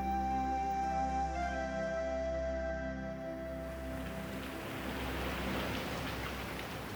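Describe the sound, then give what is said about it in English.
Heavy rain pelts down steadily at night as the wind whips, a dense, hissing wash, loud, with no voices, the downpour growing rougher and more scattered partway through. “At night, when the wind whipped and the rain pelted, Bobby huddled for shelter beneath the table stone beside the grave.”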